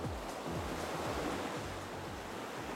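A steady, full roar of surf washing onto a beach, with low gusty wind rumbling underneath. It stays constant and fairly loud throughout, with no voices.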